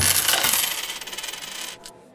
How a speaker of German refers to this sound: Die Münzen fallen zu Boden und rollen über den Linoleumboden der Eisdiele.